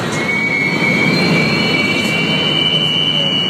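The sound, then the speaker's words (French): A Montreal metro train's wheels squeal loudly and steadily against the rails, a piercing high-pitched whine sustained over a dense rumbling roar of the moving cars, with no voices. “c'est les problèmes de chifflement dans le métro de Montréal”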